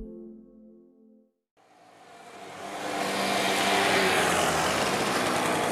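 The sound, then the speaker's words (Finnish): A convoy of mopeds buzzes along in the southeasternmost corner of Finland, on the old King's Road from Turku to St Petersburg, a few kilometres from both the sea and the eastern border. Their small engines swell into a loud, steady, raspy drone after a brief low hum and a moment of quiet. “Mopoletka kaartaa Suomineidon Hameenhelman aivan kaakkoisinta kulmaa.”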